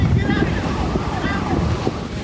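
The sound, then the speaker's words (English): A mudslide caused by heavy rains surges down a mountain road roughly 70 miles east of Los Angeles, with a loud, steady, churning roar of rushing mud and debris, continuous for the whole stretch, thick with low rumbling. “On a mountain road, you're watching disasters creep.”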